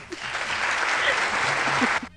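A burst of audience applause: dense, crackling clapping holds at a steady, fairly loud level for about two seconds, then cuts off abruptly. No voices are heard over it.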